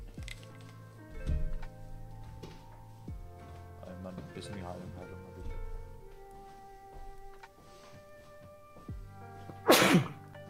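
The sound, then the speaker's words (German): One loud sneeze erupts near the end, sharp and sudden, over a steady bed of humming, music-like tones with a few soft knocks and clicks earlier on. “Gesundheit.”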